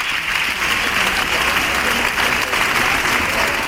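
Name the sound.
theatre audience applause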